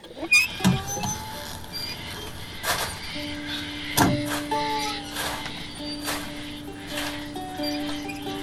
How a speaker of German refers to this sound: aber jetzt haben wir hier das Windrad. Das quietscht wunderbar vor sich hin.